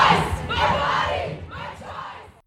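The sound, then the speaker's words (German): A large protest crowd chants the slogan "My body, my choice, raise your voice" in unison, loud, with rhythmic bursts of many voices rising and falling across a couple of phrases before cutting off. “Der Spruch wurde natürlich auch skandiert und das zeigt wieder, wie solche Dinge in die Bewegung eingewoben sind.”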